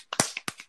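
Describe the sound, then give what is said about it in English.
A few quick hand claps in an uneven, brisk rhythm, sharp, like a small burst of applause from one or two people, given as a round of applause for Sharon, with no talking. “Everybody, the a round of applause for Sharon.”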